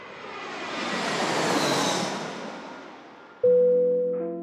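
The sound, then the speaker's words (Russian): A broad, rushing airplane engine roar swells and then gradually eases as the plane prepares to land in Khabarovsk, Russia, cut off by a sudden steady electronic tone. No voices are heard. “Наш самолет готовится к посадке в городе Хабаровске.”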